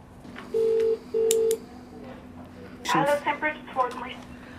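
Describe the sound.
Two steady touch-tone beeps from a phone keypad as a telephone number is dialed, each lasting under half a second with a short gap between, followed by a person starting to talk. The call is to a bed manager at Vincent's in Dublin, looking for a bed for a Wexford patient.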